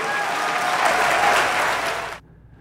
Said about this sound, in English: So she's getting raucous applause. She sounds like she's giving a real speech.